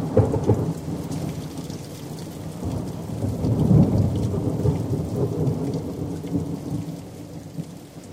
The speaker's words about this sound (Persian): ما طبقه پایین گودال باغچه تو اون حیات هشتی هیچی نمیفهمیدیم که یهو صدا اومد انگار از آسمون سنگ کویده باشن رو زمین رفتیم بالا تو حیات بالایی که تازه فهمیدیم چه بارونی داره میاد پسر